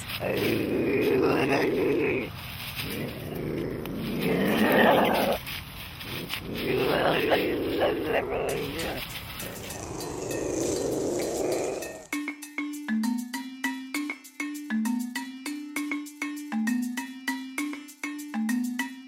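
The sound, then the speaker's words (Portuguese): An ocelot (Leopardus pardalis) growls and snarls in rough, raspy bursts, fairly loud, for several seconds before a bright, plucked musical jingle takes over. “o episódio de hoje é sobre a jaguatirica, leopardos pardales.”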